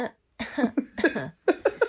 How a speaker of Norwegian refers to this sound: Nå kan, jeg, nå kan vi teste ut det eh, når jeg skal hoste, da. Eh, forrige uke da hosta jeg sånn.